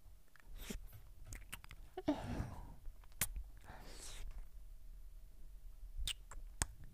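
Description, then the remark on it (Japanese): Intimate ear-licking mouth sounds: wet smacks, sharp clicks and a couple of longer slurping swishes, soft overall with no clear speech. “じゃあもう片方の耳も舐めてあげるね”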